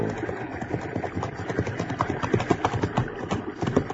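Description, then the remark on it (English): Hooves of two horses, a sorrel and a jet black horse named Lobo, clip-clop in a steady, overlapping rhythm of sharp knocks as two horsemen approach at dusk by a stream, continuing throughout with no voices. “I stopped to cross a stream, when from the gathering shadows I saw two horsemen approach.”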